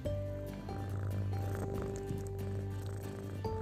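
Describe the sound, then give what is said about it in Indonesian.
A sleepy pet cat named Mail purrs steadily on a Sunday morning in July 2020, a continuous low rumbling drone with a soft, even rhythm, heard on its own with no talking. “Mail itu macan saya. Ini suaranya.”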